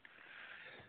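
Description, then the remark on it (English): A single soft sniffle, a short breathy intake through the nose lasting under a second, with no talking around it. “The sniffles anyone may hear has nothing to do with that.”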